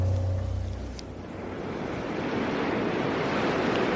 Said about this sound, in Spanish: Había una inexplicable claridad y oía como el murmullo de las olas cuando se mueren a la orilla de una playa y como silbidos de brisa.